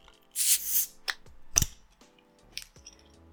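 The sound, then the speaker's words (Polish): A bottle of beer is opened: a burst of airy hiss, then a sharp metallic click and a few lighter clinks and rattles, with no talking. “Gotowy jak najbardziej, otwieramy.”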